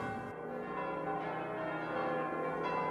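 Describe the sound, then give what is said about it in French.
Church bells ring in a steady, overlapping peal in France on the evening of the feast of the Annunciation, their rich harmonic tones sustained and blending together, with no voices present. “Des cloches le soir de la fête de l'Annonciation, à 9 mois de Noël, à 10 jours des rameaux et du début de la semaine pascale, comme si les chrétiens rappelaient à la France laïque la force de l'espérance”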